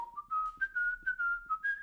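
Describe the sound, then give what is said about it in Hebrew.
Someone whistles a short tune, a clear, steady melody of about seven sustained notes that step gently upward in pitch, moderately loud and with no talking over it. “לפחות לשרוק, זה נשמע לי כמו אחלה שיר לשרוק נגיד כשאתה משתין. אתה יכול עכשיו לשרוק אותו בשלוף?”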